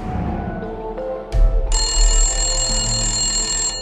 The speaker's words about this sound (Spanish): El timbre del teléfono interrumpió el hilo de sus recuerdos.